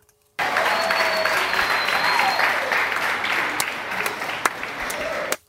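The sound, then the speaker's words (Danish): A burst of applause from a sizable crowd starts abruptly and holds steady for about five seconds, dense and loud, with a few sharp claps and faint whistles, then cuts off suddenly. “Kan vi please, kan vi please, og jeg mener please, få en klapsalve for de her heroiske mennesker, som gør, at de her sms-kæder endelig er ved at uddø.”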